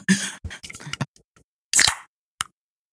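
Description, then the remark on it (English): A can of Sierra Nevada beer being cracked open: scraping and clicking handling noises, then a sharp pop with a brief fizzy hiss, followed by a single small click. No one speaks. “That is the sound of me cracking a delicious Sierra Nevada.”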